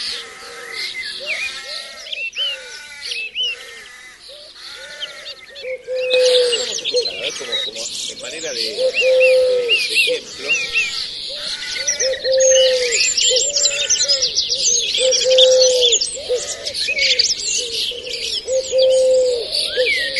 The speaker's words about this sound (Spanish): Vamos a escuchar un pájaro y ahí vamos a entrar en comunicación.